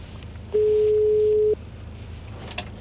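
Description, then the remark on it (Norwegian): A single steady telephone ringing tone sounds for about one second on a negotiator's outgoing call, clear and moderately loud over faint line hiss, then the line falls quiet again. “Og så er jeg jo jeg er fryktelig spent når, når det ringer.”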